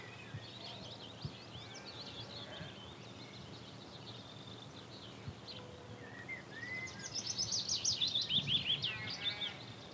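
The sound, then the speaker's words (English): A willow warbler sings a sweet, liquid phrase that tumbles downward, rising clearly in the latter half over a soft wash of background birdsong and outdoor ambience. “That's the willow warbler. Beautiful, sort of bubbly descending call.”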